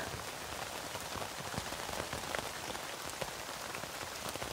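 Steady rain pattering on a tent, a dense, even hiss with scattered soft drips and taps throughout. No voices, just a constant, moderately quiet downpour.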